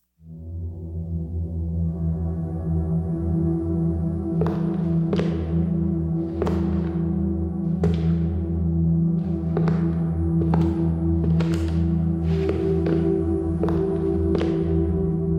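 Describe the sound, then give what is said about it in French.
Slow, heavy footsteps thud one after another at an uneven pace in a corridor at night, beginning a few seconds in, over a steady low droning hum that fills the whole recording. “alors qu'elle essaye de s'endormir, Jennifer entend des bruits de pas dans le couloir”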